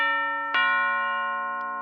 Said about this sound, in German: als es plötzlich an der Tür klingelte. Wie bitte? Wer wagt es denn da an Heiligabend bei mir zu klingeln?